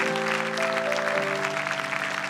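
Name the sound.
audience clapping and shouting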